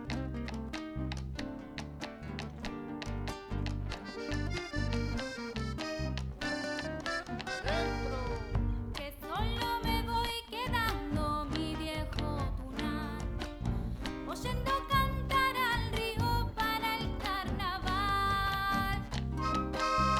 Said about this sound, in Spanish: vamos a escuchar eh, una chacarera muy linda